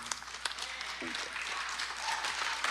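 crowd, audience applauding

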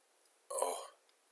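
human body sound, fart

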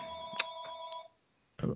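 household object, phone ringing

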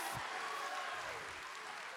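crowd, audience clapping hands

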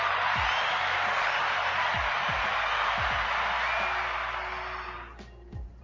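sound effect, applause sound effect

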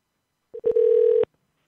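signal or alarm, telephone number being dialed

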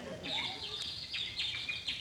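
bird, birds chirping

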